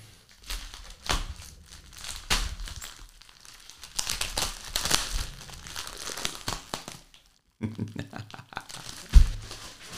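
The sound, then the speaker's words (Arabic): Packaging crinkles and rustles as a keyboard and mouse are unboxed, with bursts of crumpling plastic and cardboard, a short pause, then more handling and a sharp knock near the end. “يلا خلينا نفتح الكيبورد والماوس والشغلات الطيبه وجدان شاحن نايس ذا بيج بوكس”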